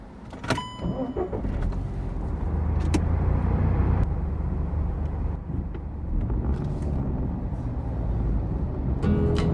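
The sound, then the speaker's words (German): A car drives steadily along a road on the way to grandma's, with a constant low rumble of engine and tires filling the interior, plus a few brief clicks and mechanical whirs near the start. “Wie viele Ausfahrten sind es noch zu Oma? Och Mensch, Katha, wir sind doch gerade erst losgefahren.”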